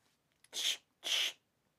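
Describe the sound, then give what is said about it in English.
Someone voices a stabbing sound effect: two sharp, breathy hissing bursts in quick succession, fairly loud, with no talking around them. “Uh, it's a stabbing noise”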